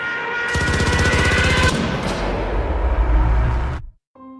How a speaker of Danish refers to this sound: Det er altså traileren til den kinesiske storfilm Slaget ved Changinsøen, som vi hører